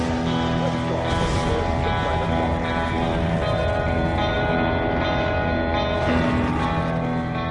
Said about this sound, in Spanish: 5, 4, 3, 2, 1, encendiendo motores.